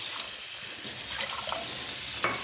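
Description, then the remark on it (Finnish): Tap water runs steadily into a metal cooking pot for cooking quinoa, roughly double the water to one decilitre of quinoa. A continuous hissing splash that brightens partway through, with a few clinks near the end. Fairly loud, with no talking. “Mä otan tuosta ton kattilan ja kun meillä on desilitra tuota kvinoaa, niin suurin piirtein tuplan verran sitä vettä.”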